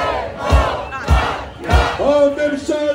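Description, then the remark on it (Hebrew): A large protest crowd at a demonstration in Jerusalem chants loudly in unison, with three evenly spaced drum-like thumps punctuating the chant before the voices rise into a sustained, sung call. “ביום שני שעבר הייתה הפגנה גדולה בירושלים.”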